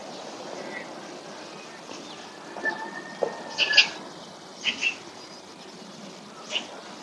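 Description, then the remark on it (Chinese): A magpie foraging early in the morning in the mountains gives a few short, harsh chattering calls in scattered bursts over a steady low hiss of outdoor background noise, with no one talking. “喜鹊一大早就来觅食啦。”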